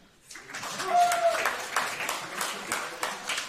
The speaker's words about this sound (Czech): Potlesk teď.